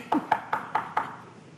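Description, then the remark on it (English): Five evenly spaced knocks on a door, fairly loud, each a sharp hollow rap with a brief resonant tail, followed by quiet room tone with no talking. “Well, the ghost is still knocking.”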